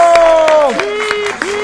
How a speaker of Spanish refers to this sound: ¡Aplausos